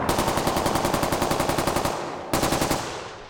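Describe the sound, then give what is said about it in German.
Rapid bursts of automatic rifle fire as four men shoot assault rifles into the air beside a plane at an airport: a long rattling volley, a short pause and a second burst, loud, with no voices. “Vier Männer steigen aus, feuern aus ihren Sturmgewehren Schüsse in die Luft und stürmen die Gangway.”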